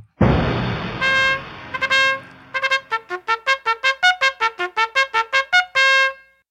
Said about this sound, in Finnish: Kuului torven toitotusta ja maa vavahteli.